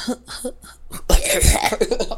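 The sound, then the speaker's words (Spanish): A person imitates a coughing fit: several short, quick coughs, then a louder, rough run of raspy hacking coughs that builds up. “O que, o que se, se, acumula como el tranecito de, tose de tosedera, ¿no?”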